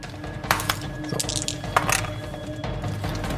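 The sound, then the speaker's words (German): Dice clatter across a tabletop in a quick burst of sharp, hard clicks, several small impacts over a couple of seconds, with a low steady hum underneath and no talking. “Ähm, ja, darf ich die Würfel nochmal haben?”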